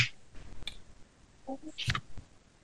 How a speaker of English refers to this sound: You just put in that little chat. He's typing away.